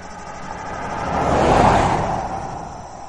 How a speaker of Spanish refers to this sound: A última hora de la tarde, un coche alemán cruza los caminos a toda velocidad, y un olor como a pavo asado inundó la comarca de Tierra de los Barros, aunque no era la hora de cenar.